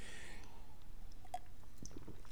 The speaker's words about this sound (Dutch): Sorry, een slokje water.